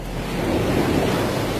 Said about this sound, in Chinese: 四周都是静悄悄的，只有头顶盘旋着海鸥的叫声和海浪拍打岩石的声音。